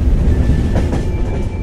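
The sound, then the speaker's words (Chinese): A train on the trunk railway, next stop Taichung Station, rumbles steadily along the rails, a loud, continuous low roar with rhythmic clatter and a faint high whine running through it; no one speaks. “今天生活啊，Google 说在地的故事呢，我们要来跟大家聊聊纵贯铁路在中部重要的门户台中火车站。”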